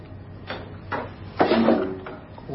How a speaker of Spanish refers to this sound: Abre otro de los cajones, coge unas braguitas limpias de Nines y las huele.